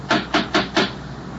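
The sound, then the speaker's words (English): Four firm, evenly spaced knocks from a huge brass knocker on the front door of a house in the New England countryside during a thunderstorm, loud, followed by a quiet pause with no other sounds. “There was a huge brass knocker.”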